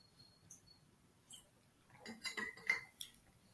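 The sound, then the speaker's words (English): Someone drinking water, with faint clinks and taps of a glass followed by a short cluster of quiet sipping and handling noises; no one speaks. “I really hope that like the sound of me drinking water does not get recorded.”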